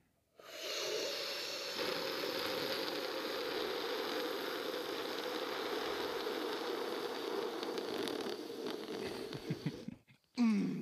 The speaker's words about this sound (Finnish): Esimerkiksi meillä on tässä tämmöiset juomat, niin mä sanoisin, että aloitetaan tämä podcast-jakso nyt sillä, että ei ASMR tavalla, mutta semmoinen kisa, että kumpi ryystää toista pitempään.